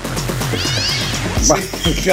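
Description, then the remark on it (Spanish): Cat meows woven into a song: several drawn-out, gliding meow sounds repeat over a steady musical backing, fairly loud and up front in the mix. “Pero fíjate que hace wow, wow, wow, wow, y tendría que decir miau, miau, le hubieran sido más, este, ¿no?”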